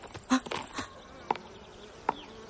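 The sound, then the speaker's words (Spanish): A wasp buzzes softly and steadily as it approaches, with a few brief clicks and thumps punctuating the hum. No one speaks. “La avispa se acerca a él.”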